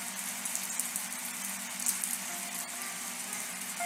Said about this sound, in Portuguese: Então, assim como vocês ouvem esse som ambiente de chuva, de piano, e vocês se remetem a essa realidade